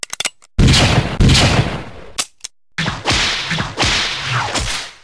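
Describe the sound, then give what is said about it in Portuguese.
A rapid series of sharp, loud pistol shots and crisp cracks from Indiana Jones's pistol in the Indiana Jones films, sound design by Ben Burt, each a punchy burst that rings out with a short echoing tail, with no voices. “Adoro o som dos murros que o Indy dá aos seus inimigos, do seu chicote e dos disparos da sua pistola.”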